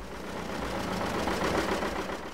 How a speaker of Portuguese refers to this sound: Com um motor a diesel, mas com um motor de arranque pony, a gasolina, que é este que estamos a ouvir motor de arranque que, só depois de aquecer, dá ligação ao motor principal, que é este outro.